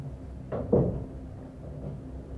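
knocking on a door

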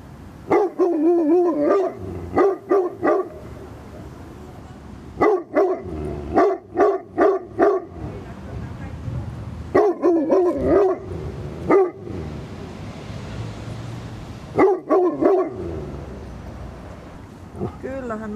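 large dog barking

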